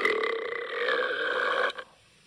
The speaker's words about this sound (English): Who was that burp? That was awesome.